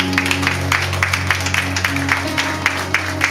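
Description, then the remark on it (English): An audience claps together in a steady, even rhythm, crisp beats repeating every fraction of a second over a sustained low musical drone, with no voices heard. “You can clap on that.”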